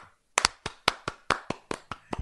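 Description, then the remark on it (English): A quick run of about ten sharp hand claps in a steady, brisk rhythm, each one crisp and bright, with no voices over them. “I want to applaud that, tradies who listened to Tofop.”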